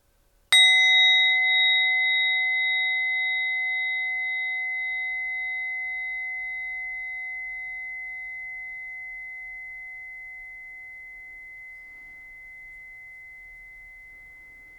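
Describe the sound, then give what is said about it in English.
A single meditation bell is struck once at the end of a meditation, its clear, bright tone ringing out alone and slowly fading over many seconds into near silence. “As we complete our meditation, I invite you to listen to the sound of the bell.”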